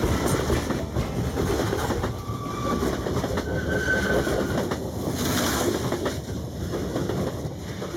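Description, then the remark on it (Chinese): A train bound for Hamburg runs steadily along the rails with a continuous loud rumble and clatter, broken twice by short, thin, high-pitched wheel squeals. No one speaks. “我就去车站赶搭火车去汉堡。”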